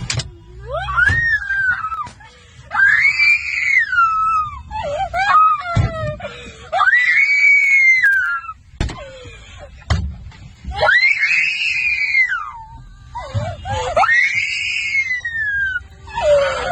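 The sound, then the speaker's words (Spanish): A young girl screams and wails in distress, letting out a series of long, high, rising-and-falling cries separated by brief gasps, loud. “Imagínate el sufrimiento de esta pequeña.”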